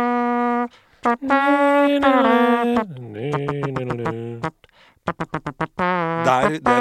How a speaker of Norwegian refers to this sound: Men hvilken konsoll er dette, da? Gameboy. Det er Pokémon! Ja, det er Pokémon! Ah. Det er Pokémon. Er det, det er mulig? Pokemon. Det er Pokémon. Åh, det er fra ja. Pokémon blå og rød.